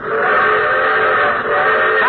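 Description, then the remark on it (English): A loud, sustained train whistle sound effect, played by a sound man in a radio commercial for Autolite spark plugs in place of a gong, blows steadily for about two seconds, its chord of shrill, reedy tones holding almost unbroken, with only a brief dip before it continues, and no voices over it. “Oh, well, let's say it's a trainload of car owners rushing to get wide gap Autolite light resistor spark plugs.”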